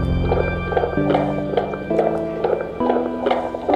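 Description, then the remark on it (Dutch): A fast fetal heartbeat picked up by a doppler monitor on a pregnant belly with gel, a steady galloping whoosh-thump repeating quickly and evenly, fairly loud, with a soft sustained tone humming underneath. “Als je plots vanuit die buik een hartslag hoort komen”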